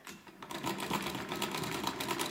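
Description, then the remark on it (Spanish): A sewing machine runs steadily as a woman sews bags, its rapid mechanical stitching clatter repeating in a quick, even rhythm after a brief quieter start, fairly loud with no voices. “Me encantaba verte en tu máquina de coser haciendo las bolsas que hacías.”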